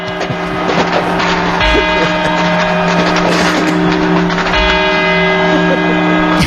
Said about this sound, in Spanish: Notarán ustedes que el sonido es totalmente diferente, los cuartos a las campanadas.